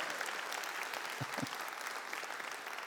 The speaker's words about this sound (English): Can we have a round of applause for the three people I just abused? I appreciate that.